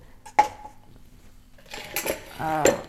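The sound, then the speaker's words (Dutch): Dishes clatter as they are loaded, with a sharp clink near the start followed by a busier run of knocking and scraping crockery, plus a faint voice toward the end. “Dus eh, ik weet het even niet meer, want ik ben aan het inladen.”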